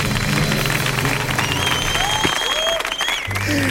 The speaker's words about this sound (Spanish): Fuerte el aplauso a nuestros patrocinios.